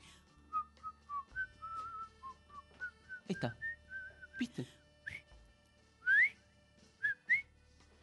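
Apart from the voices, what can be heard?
person whistling a tune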